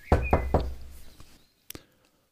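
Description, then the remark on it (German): Three firm, evenly spaced knocks on the wooden door of a traditional distillery ring out, followed by a brief pause and a faint click or creak as something shifts. “Also ja, dann würde würd ich dort mal klopfen.”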